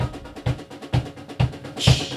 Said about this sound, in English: Oh, that is the train.